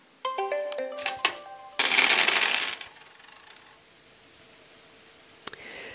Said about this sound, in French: je suis venue avec un jeu de dés. Est-ce que pour finir, euh, tu accepterais de les lancer, de choisir un dessin porté par ces dés